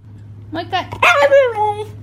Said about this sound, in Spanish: y un perro en Alemania que dice hamburguesa. ¿Cómo va a ser eso? Y, eh, eh, sí, güey. El perro, sí, güey. Ahí va, era. Un perro así literalmente dice hamburguesa, no, eso está muy difícil que un perro diga eso, eh. Ahí les va. A ver. El perro dice...